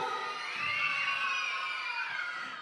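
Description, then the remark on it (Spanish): A live studio audience of about 2,500 people at a radio broadcast cheers and shouts continuously, a dense wash of many voices with high-pitched yells on top, holding steady and then easing slightly toward the end. “Claro, que todos, que todos, que todos los que están en su casa escuchen que hay un público, no que nada más estamos así con tres personas, no, que hay un público así de 2.500 personas aquí.”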